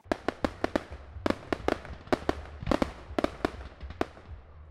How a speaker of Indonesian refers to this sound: Kalau udah digoreng nih, kita tutup ya. Dengan perisai kita pasti bakal timbul suara tok tok tok wah rame banget deh mendadak rame kayak orang lagi pulang pergi haji gitu kan ada petasan yang rame banget